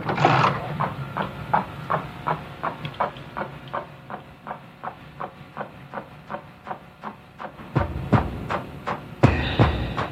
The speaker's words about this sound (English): And he goes back and he watches it frame by frame. And when he starts that, you can hear, because this is an old school VCR, you can hear it clicking every frame. And that click is like a metronome to the soundtrack that's playing at that time.